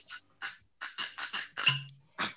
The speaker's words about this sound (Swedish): det är ju fantastiskt när korken släpper.